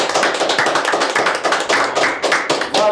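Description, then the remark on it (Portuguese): A loud round of applause for a guest: many hands clapping in a dense, steady patter of sharp crackling claps that lasts about three seconds, with no one talking. “Salve de palmas!”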